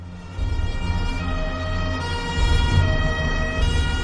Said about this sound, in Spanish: El 29 de septiembre de 1984 se oyeron las sirenas de los coches de policía resonando por las calles de Palermo.